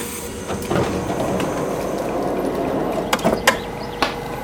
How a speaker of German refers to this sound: Wir fahren ein in Kratzburg, ganz kleiner Bahnhof, äh, wie man sieht.